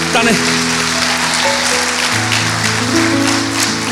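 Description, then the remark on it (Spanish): A church audience claps steadily and continuously, a loud, dense wash of applause, with sustained musical tones and some voices running underneath. “Vamos, si lo hace, haga un aplauso y haga, no se detenga.”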